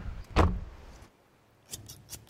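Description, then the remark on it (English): A car door opens with a sharp mechanical clunk, followed by a brief lull and a few light metallic jingles, like keys, in an otherwise quiet setting. “Cut to his car. Door opens.”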